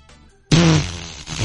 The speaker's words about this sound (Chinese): 都没办法，最后呢，大爷周围的两个年轻人看不下去了，你这个大爷一直在放屁，哎呀，舒服，